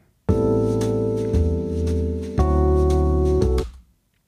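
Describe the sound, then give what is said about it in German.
A short instrumental passage in a swing rhythm, played as the second variation of a music demonstration: loud, sustained harmonic chords that change a few times over about three seconds, then stop. No one speaks. “Variante 2, jetzt nehmen wir einen Swing-Rhythmus und hör mal hierhin, was da passiert.”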